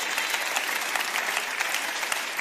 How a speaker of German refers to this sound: Komm, wir müssen Gott mal einen Applaus geben für sein Wort.